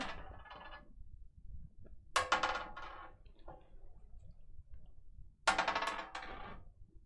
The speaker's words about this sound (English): Okay, so if I'm looking this way, okay, just roll the dice, and whenever you're happy, just uh, just put your hand on top of it.